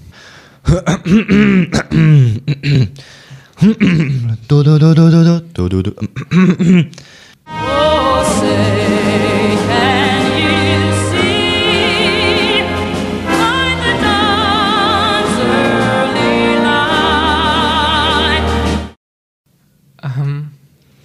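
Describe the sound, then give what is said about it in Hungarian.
After a few seconds of talk, a man sings the US national anthem loudly and steadily over full, rich accompaniment for about ten seconds, then it cuts off and a short voice follows. “A csillagos sávos lobogó előadja ….”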